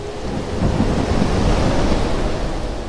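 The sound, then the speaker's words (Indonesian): A great, long-lasting storm at sea strikes a Liverpool ship in 1747, roaring steadily with heavy waves crashing and a constant rush of wind, loud throughout, with no voices. “Suatu hari di sebuah kapal Liverpool pada tahun 1747 dan dalam perjalanan pulangnya, kapal yang ditumpanginya diterpa oleh badai besar. Badai itu berlangsung lama”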